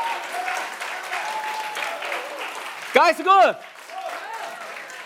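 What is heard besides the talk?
audience clapping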